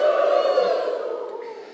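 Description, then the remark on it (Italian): A crowd shouts "Yuhu" together in one loud, drawn-out collective cry of many voices that holds for under two seconds and slowly fades. “Dite come Yuhu!”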